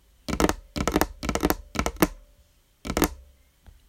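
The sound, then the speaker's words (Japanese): Fingers drum on a desk in quick rolling clusters, like a galloping horse, five crisp bursts with a pause before the last, followed by a faint tap. “机を馬が走るようにタッピングする音”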